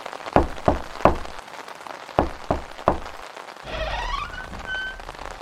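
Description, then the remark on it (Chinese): Heavy rain hisses steadily throughout, broken by six dull thumps in two groups of three, followed by a rising, wavering squeal toward the end. No one speaks. “雨下那么大，这里又那么难停车。”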